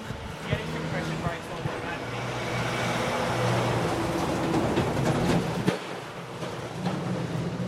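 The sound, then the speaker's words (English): A heavy truck rumbles past on a road in West End as people run across it, its low engine drone and tire roar swelling to a peak and then easing off amid steady traffic noise. “We've got to run across the road right now because there's a truck coming.”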